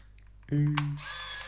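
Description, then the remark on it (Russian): A roughly 20-year-old film camera, revived with new batteries, fires: a brief motor whine, a sharp shutter click, then a buzzing mechanical whir as the film winds on. No one speaks. “Я, ре, я реанимировал фотоаппарат просто э, 20-летней давности, на который меня мои родители фотографировали.”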